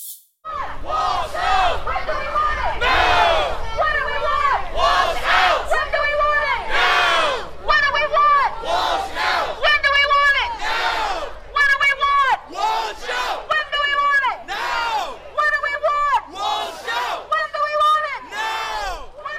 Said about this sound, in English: Um, earlier in the evening, they stood in a line and uh, in a very direct sort of way, they chanted about what they want. Let's listen to that.